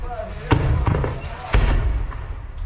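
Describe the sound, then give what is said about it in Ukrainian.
Artillery fire, likely a 120 mm mortar, thumps out in two heavy, low booms about a second apart with a softer thud between, over a rumbling background and faint voices. “працює артилерія. Похоже на 120-й, можливо, хоботастий.”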